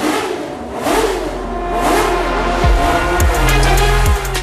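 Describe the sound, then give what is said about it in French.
A racing car engine revs loudly, its pitch sweeping up and down in several surges over a steady low rumble, with no voices. “démarrez vos moteurs.”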